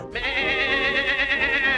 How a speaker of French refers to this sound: Et oui, on parle bien d'une chèvre.